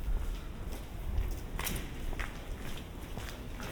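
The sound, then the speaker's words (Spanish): Footsteps crunching over stones while walking along a street, in an uneven rhythm, with sharper gritty crunches standing out around the middle, over a steady hiss of outdoor background noise; no one speaks. “esos crujidos de las piedras”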